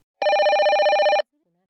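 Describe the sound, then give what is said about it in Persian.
A telephone rings once in a loud, steady one-second burst of rapidly trilling bell tones, then stops, leaving near silence behind it. “ببخشید من این تلفن رو جواب میدم”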